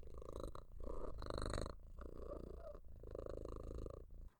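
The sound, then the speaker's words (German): A cat purrs steadily while a right hand strokes its head and body, a continuous low rumbling that swells and eases in slow cycles, with no voices present. “Deine rechte Hand streichelt über den Katzenkopf und den Katzenkörper und du hörst zu Beginn noch ein deutliches Rummen.”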